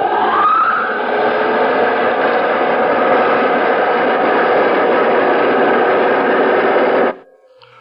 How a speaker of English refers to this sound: Those jet dynamos you see before you exist. Jet dynamos driven by the harness power of a thousand suns. Listen, Earthman. Listen to them.